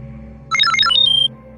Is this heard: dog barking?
no